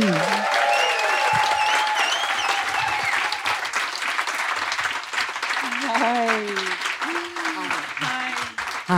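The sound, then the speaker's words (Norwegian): A live audience breaks into sustained, loud applause for the first guest brought on stage, dense clapping for several seconds, with cheers and whoops rising over the clapping. “Kan alle være snille gi en kjempeapplaus til Anne Kristine Bergem!”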